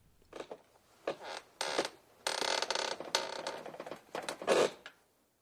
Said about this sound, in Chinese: 放学后留下练习钢琴时，音乐教室里老旧的地板发出的咯吱咯吱声。